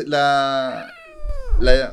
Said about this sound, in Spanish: Uy, la gatita!